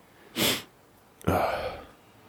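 A single sneeze: a sharp breathy intake burst followed by a loud, explosive expulsion that trails off with a hissy exhale, heard alone without any talking.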